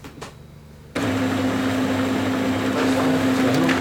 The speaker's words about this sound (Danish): printer i livet løs. Nu prøver lige at putte en papir i og se, hvor du stadigvæk printer. Og der sker noget.